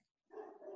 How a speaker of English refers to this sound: And I apologize for the barking. And my Pete likes Pete, my chocolate lab likes to bark at every single person that walks by our house.